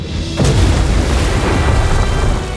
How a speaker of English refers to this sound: The enemy slowly turned over and smashed into the sea in front of the fortress.